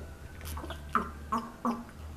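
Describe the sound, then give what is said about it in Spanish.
Someone takes a big sip of malt beer, making three short, wet gulping swallows in quick succession over a faint low background hum. “Mami, tú sí le diste un buen sorbo.”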